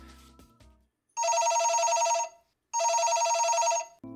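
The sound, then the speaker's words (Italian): A telephone rings twice for an incoming call, each ring a loud, steady trilling burst about a second long with a pause between, following a brief bit of other sound at the start. “Quindi io direi di far partire questa chiamata perché l'abbiamo lasciato sì.”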